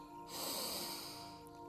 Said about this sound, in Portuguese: Ainda com os olhos abertos, tome uma respiração bem profunda.